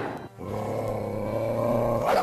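A small chihuahua growls in one steady, rumbling stretch lasting about two seconds, fairly loud, rising slightly into a sharper snarl at the end, with no talking over it.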